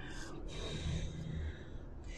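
A steady, forceful breath pushed out through the throat with the mouth closed, a soft hissing rush lasting a couple of seconds, fairly quiet, with no talking.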